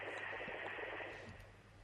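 A phone line cutting out, leaving a steady, buzzing hiss of static with a bright tonal hum running through it for about two seconds. No one speaks.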